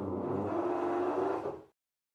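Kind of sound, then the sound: tool, power drill running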